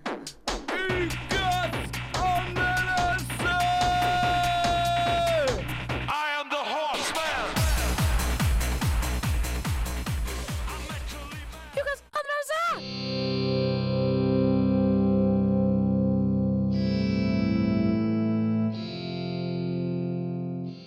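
A band's rock track plays loud, with heavily effected, distorted guitar and pounding rhythmic chords, then abruptly shifts into sustained, droning chords for the second half.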